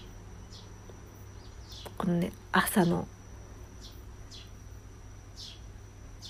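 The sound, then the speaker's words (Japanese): Birds chirp in short repeated calls throughout, over a steady low hum, with a person speaking briefly in the middle; recorded in the early morning indoors through a fully opened bedroom window during light drizzle, with insects also sounding. “今日はえー、私の部屋の窓を全開にしましてですね少し少し小雨っぽいので屋内ですがどうだろう虫の音とか鳥の音とか今早朝録音なので”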